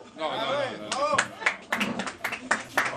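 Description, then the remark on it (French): Scattered, uneven handclaps from an audience, a handful of sharp claps in loose rhythm, following a moment of voiced, melodic-sounding talk with voices continuing underneath. “Ah, bah, vous applaudissez, les gars”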